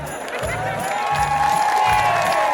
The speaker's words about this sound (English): oh, listen the cheering, the adoration of idiots